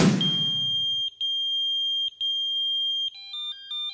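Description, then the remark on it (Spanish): A pager (beeper), a simple telecommunications device that received short text messages, sounds a shrill, sustained high-pitched electronic tone broken by a couple of brief gaps, then shifts into a quick melodic run of chirping beeps. Fairly loud, with no voices. “Mensáfono, dispositivo de radiobúsqueda o radiomensajería, localizador, busca personas, busca pager o como la mayoría lo conocemos, el beeper.”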